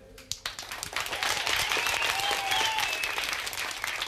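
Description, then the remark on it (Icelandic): A TV show audience applauds the girls from Fossvogsskóli who danced on the show: a dense, steady patter of many hands clapping that swells after a brief start and holds at a lively level, with a few faint whoops or cheers rising above it. “Við þökkum þeim kærlega fyrir þeirra hlut í þættunum og gefið þeim gott klapp.”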